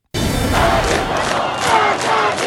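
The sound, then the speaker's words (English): A large crowd of protesting students in Iran shouting together in loud, sustained unison, a dense roar of many voices chanting slogans such as "death to the dictator" with rhythmic surges and no single voice standing out. “These students are shouting death to the dictator.”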